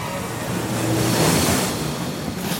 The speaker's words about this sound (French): Il y a une énorme vague qui déferle